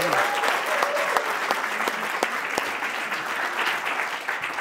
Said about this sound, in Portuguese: Uma salva de é palmas para o senhor. Uma salva de palmas.